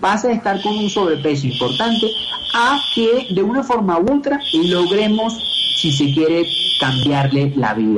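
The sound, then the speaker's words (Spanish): A high, steady electronic alarm tone, one that goes off now and then at the place, rings continuously in the background while a man talks over it in Spanish in the foreground, the alarm sound dropping out briefly now and then. “Por ejemplo, aquí, eso es una alarma, no sé qué ocurre, es una alarma que suena de vez en cuando acá”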